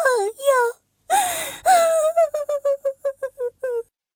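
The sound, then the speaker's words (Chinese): A voice acting out the crying of a big fat cat in a story: two short sobs, a long drawn-out wailing cry, then a quick run of about a dozen choppy sobbing bursts, loud and with no other talk. “” 大肥猫止住了哭声”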